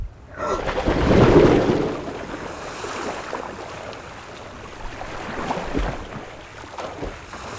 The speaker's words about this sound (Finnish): Paljon vettä. Joka puolella vettä.